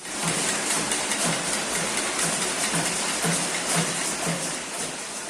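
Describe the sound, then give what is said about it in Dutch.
Many people in Myanmar banging pots and pans hard in their homes in protest, a dense, constant wash of metallic clatter with a loose rhythmic pulse, without any talking. “en wat heel tekenend is voor deze protesten, dat zijn de geluiden die uit de woonkamers van mensen zelf komen, waarin ze heel hard de pannen gaan slaan.”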